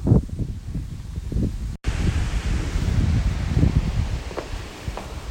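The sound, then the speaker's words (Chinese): Steady wind blows across quiet green fields during a walk to an art museum, with a soft, constant rushing and low rumble, joined by light leafy rustles and a few faint scuffs. The sound cuts out for a split second early on. No one speaks. “所以在这样宁静的田野当中呢，或许现在可以听到一些风声哦，非常非常安静”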